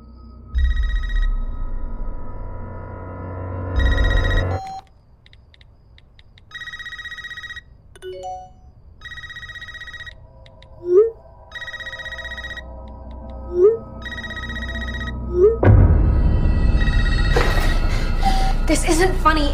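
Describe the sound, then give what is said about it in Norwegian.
A telephone rings repeatedly in steady bursts in a kitchen, clear, with short tonal chirps and a low rumble around it before a loud, dense wash of noise takes over near the end. “Det starter jo med en reprise på åpningsscenen fra den første filmen, der det er ei uskyldig lita jente som eh, holder på å tjone på inne i kjøkkenet, og så ringer telefonen.”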